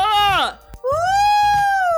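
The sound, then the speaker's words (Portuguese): A voice imitates an ambulance siren: a loud, wavering wail that slides down in pitch, breaks off, then rises and holds a long, steady tone for over a second. “Não sei o que foi isso, essa ambulância.”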